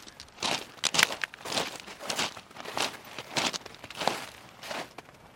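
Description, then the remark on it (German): Footsteps crunch steadily over snow and gravel on the rooftop sculpture garden of the largest high-rise of the Kistlerhof complex, recorded with a windscreen so no wind is heard: a regular walking rhythm of crisp, gritty compressions, moderately loud with no voices. “So, der Bayerische Rundfunk macht weiter, nun mit einem Windschutz, sodass wir nur noch Schneegeräusche hören unserer Füße auf dem Schnee und Kies und nicht mehr Wind.”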